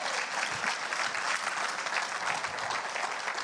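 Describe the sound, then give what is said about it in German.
An audience at a church service claps steadily for the teenagers for a few seconds, a dense, even wash of many hands with no voices standing out above it. “Wollen wir den Teenies mal einen coolen Applaus geben?”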